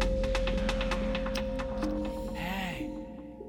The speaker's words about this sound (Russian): вот сейчас можно прислушаться и услышать щелканье зажигалки и крик «Хей!».